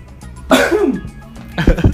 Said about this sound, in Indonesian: langsung batuk kan ya